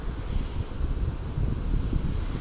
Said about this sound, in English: Just like you are hearing the ocean right now, I envision that God is the ocean and we are all a cup of that ocean.